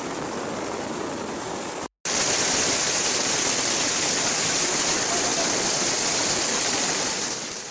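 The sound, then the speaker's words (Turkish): Heavy rain pours down in a dense, steady roar mixed with rushing floodwater on roads turned into lakes in Düzce, where 201.6 kilograms of rain per square metre fell in six hours; loud throughout, broken only by a brief silent cut near the start; no voices. “Dün etkili olan yağmur Düzce'de yolları göle çevirdi.”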